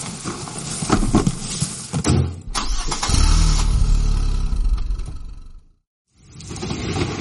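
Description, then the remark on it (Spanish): A car engine cranks and catches, then settles into a loud, deep rumble as the car, loaded with gear, pulls away toward a festival, the sound cutting off abruptly after a few seconds. No one speaks. “Venga, va, cargamos el material en el coche y hacia el festival.”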